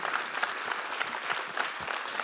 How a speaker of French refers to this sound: On peut l'applaudir.